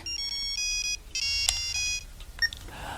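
A telephone rings with a bright electronic melody of repeated high tones in short bursts, followed by a couple of sharper beeps, with no talking.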